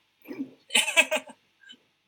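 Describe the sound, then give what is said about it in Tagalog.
A brief fit of coughing: a low, muffled cough, then a quick cluster of three or four harsh, raspy coughs, ending with a faint small sound. No talking. “Pasensya po, inuubo kami.”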